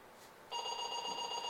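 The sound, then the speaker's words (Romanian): A telephone starts ringing abruptly partway through, a steady electronic trill with bright sustained tones, clear, with no voices over it. “Cineva sună să ne aducă niște vase.”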